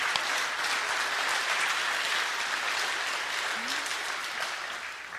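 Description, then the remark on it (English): Steady applause from a crowd for all the mothers on Mother's Day fills the whole stretch, a dense wash of many hands clapping at an even loudness, easing off slightly toward the end. “Let's give a round of applause to all our mothers.”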